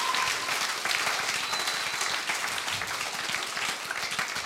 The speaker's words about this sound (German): Können wir mal einen Applaus geben?